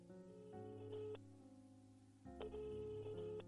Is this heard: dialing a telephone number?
yes